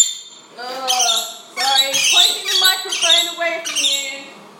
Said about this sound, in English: because the birds are very excited that I'm up and making coffee.